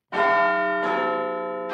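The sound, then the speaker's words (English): Big Ben-style clock tower chimes: three deep, resonant bell strikes in slow succession, each ringing out and overlapping the last, loud and clear with no voices. “It's the chimes of Big Ben, which means only one thing on this show.”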